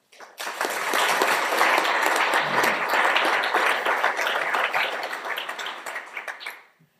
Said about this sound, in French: Mais je demande vraiment d'applaudir euh, très fort euh, cette personnalité extrêmement forte.